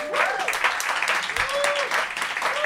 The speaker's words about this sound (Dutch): Eh, dus ik vind het alleen maar, ik vind alleen maar applaus voor het feit dat het honderd keer gelukt is.